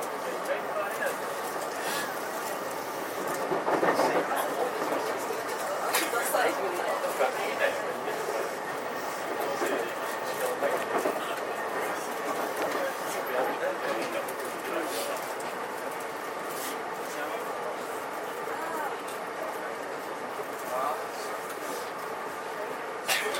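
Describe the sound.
Steady rumble and whining motor hum of a JR 323 series commuter train in motion, heard from inside a carriage as it approaches Noda Station, holding an even, continuous level throughout with faint indistinct voices in the background.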